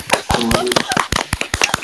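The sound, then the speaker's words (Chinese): A small group claps together, sharp uneven slaps piling up in a brisk, loose rhythm that stays fairly loud throughout, with a faint voice briefly audible underneath. “好，我们大家来鼓掌。”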